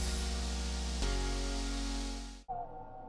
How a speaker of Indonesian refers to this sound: Waduh, Mas, Hujan Kira-kira atap ada yang bocor nggak ya?